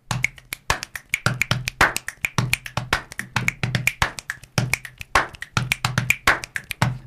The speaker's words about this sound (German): Äh, Body Percussion, ne? Das war so lustig.